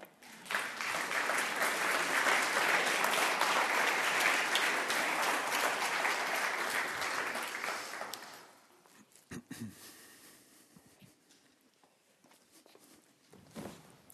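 A burst of audience applause as a woman is called to the front, dense and steady for about eight seconds, then fading into a few scattered claps and shuffling footsteps.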